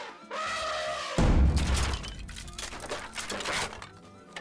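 A drum's skin is struck with a drumstick and the drum breaks: one heavy, booming hit followed by a scattered, rattling crash that decays over a few seconds. A short, reedy tone sounds just before the impact.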